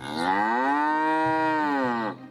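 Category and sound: animal, cow mooing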